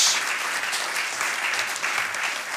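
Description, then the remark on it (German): A crowd claps steadily, a dense, even wash of many hands with no pauses and no voices, holding at a fairly loud level throughout, as an audience welcomes three women onto a stage. “Begrüßen Sie mit uns die drei Damen hier auf unserer Bühne mit einem großen Applaus”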